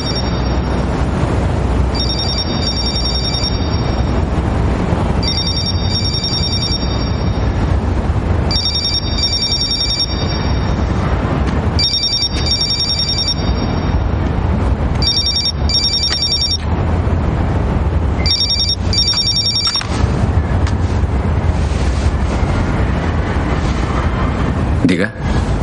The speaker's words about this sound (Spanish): Más tarde, Ben mira a la medusa en la pecera de su habitación del motel cuando le suena el teléfono y se levanta por él.